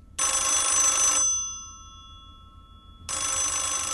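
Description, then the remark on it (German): A black Bakelite W48 rotary-dial landline telephone's twin bells ring loudly in a harsh metallic trill, pausing with a lingering ring-out before a second burst begins. “Den Fernsprecher W48 aus schwarzem Bakelit, der mit zwei Schellen klingelt.”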